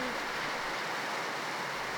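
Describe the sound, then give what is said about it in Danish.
Heavy rain drums steadily on the corrugated iron roof of a windowless Catholic church building, a dense, continuous roar of hissing patter overhead with no pauses and no voices. “Vi må næsten råbe for at overdøve regnen, der trumler på jerntaget.”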